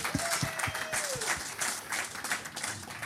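An audience breaks into steady applause, a dense wash of many hands clapping at a fairly even loudness for a few seconds, with a brief rising whistle-like tone near the start.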